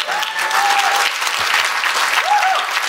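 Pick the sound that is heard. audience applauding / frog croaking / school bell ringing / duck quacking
audience applauding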